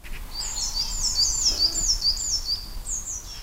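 Birdsong fills the air in a quiet forest by a hikers' car park on the Scheideck, a series of bright, rapid chirps and trills repeating over a soft low background hum, with no voices present.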